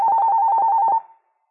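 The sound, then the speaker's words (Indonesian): A telephone rings with a steady electronic trill, a fast pulsing tone that lasts about a second and then cuts off, clear with no one speaking; a caller phoning in with a question to an Islamic question-and-answer program. “Baik, saya angkat telepon.”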